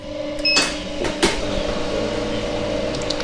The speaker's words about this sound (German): So klingt es, wenn Ben Biedenkopf seine Schokoladenmaschine anschmeißt